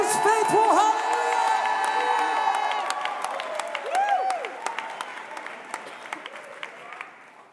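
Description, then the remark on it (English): A crowd bursts into loud applause mixed with shouts and whoops of cheering in praise to God, then the clapping thins out into scattered claps as the noise gradually dies down. “If you believe that, let's lift a sound of praise tonight that He is awesome, He is real”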